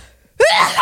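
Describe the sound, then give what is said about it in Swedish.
A single loud sneeze bursts out abruptly after near silence, with a strongly voiced, drawn-out cry carrying through to the end. “Prosit!”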